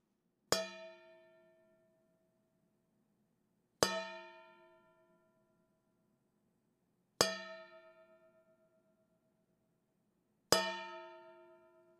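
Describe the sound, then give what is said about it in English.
A large metal mixing bowl struck four times with a wooden spoon on the outside, around the ring formed by its flat bottom, evenly spaced about three seconds apart, each hit ringing out with a bright metallic tone that fades over a second or two. “take a large metal mixing bowl and a dull, rigid object to strike it with”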